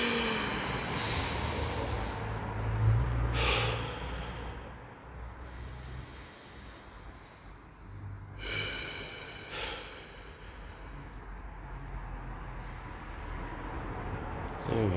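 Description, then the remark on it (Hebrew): A few slow, deep breaths drawn in and pushed out during a guided relaxation exercise with eyes closed, each a soft rushing gust separated by quiet pauses over a faint low hum. “לעצום את העיניים. לא, אני באמת מפחד שהשינה הזאת תשלח אותי לשינה. לנשום.”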